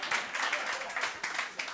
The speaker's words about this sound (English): Uh, Facebook Live, I don't know if you heard the applause, but this is a room, room full of haters.